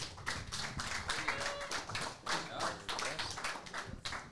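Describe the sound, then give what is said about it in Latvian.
A show audience bursts into steady applause welcoming a musician guest from Piebalga, dense overlapping claps for several seconds with no voices on top, loud. “Ar skaļiem aplausiem”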